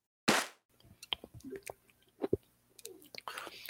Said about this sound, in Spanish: me agarraron tragando camote, literal, aquí en, este inicio de puros cuentos. Bueno, no es camote, pero sí estoy tragando